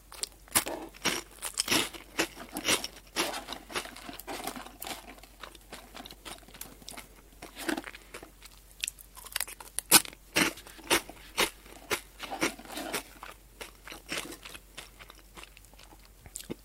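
Someone chewing crunchy Potelong potato snack sticks, a steady run of crisp, brittle crunches and snaps in quick irregular rhythm, with a few louder bites, and no talking.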